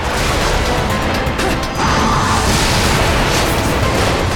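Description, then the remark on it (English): Loud, dense crashing and banging as an angel in a video game punches into the metal hull of a military transport airplane, heavy impacts blending into a constant roar of engine-like noise with no voices. “There's an angel that's like punching into. It's like punching into the plane.”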